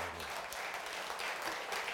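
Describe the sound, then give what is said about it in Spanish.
A crowd applauding Christ steadily throughout, a dense, even wash of many hands clapping at a moderate, unchanging level with no talking over it. “Le damos un aplauso al Cristo de”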